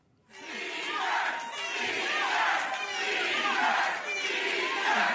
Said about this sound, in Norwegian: ellevill jubel hos demokratene på valgnatten. De har tatt tilbake Representantenes hus